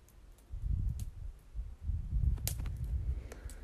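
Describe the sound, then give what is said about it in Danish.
On a slightly windy January evening, wind rushes through leafless treetops in two long, surging gusts with a deep roar like sea waves, while a few faint twig clicks and creaks come through on top. “I aften der er der skyde, og det blæser lidt, og det betyder, at trækronerne, også selvom der ikke er blade på her i januar, suser.”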